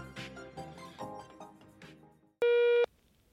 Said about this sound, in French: La parole est à vous, après le bip sonore.